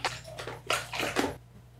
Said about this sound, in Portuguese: Ah, vou até tomar mais um chimarrão aqui.